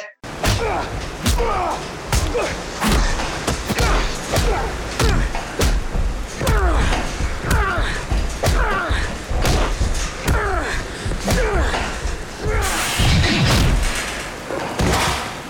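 A loud flurry of heavy punches thudding against bodies, landing every second or so amid continuous splashing and sloshing water, with no music underneath, from a film fight scene with Christian Bale.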